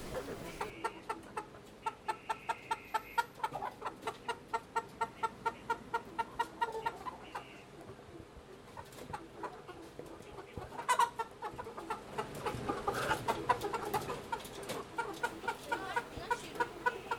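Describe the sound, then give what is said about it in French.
Many chickens cluck and chatter together in a busy henhouse, a dense layered flock sound with rapid repeated clucks throughout and a few louder squawks near the end. “Un poulailler.”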